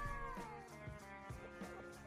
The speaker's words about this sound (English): Or is that just something he does, like, predominantly of a morning? Sometimes when he goes in the utility room. What a fucking weird cat.